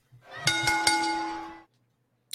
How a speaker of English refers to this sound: Please ring that bell.